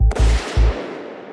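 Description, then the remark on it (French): A loud gunshot cracks out, followed by a heavy low boom and a second rumble, then a long echoing tail that fades away. No one speaks. “Mais cette fois, il parle d'une dispute entre les parents et d'un coup de feu.”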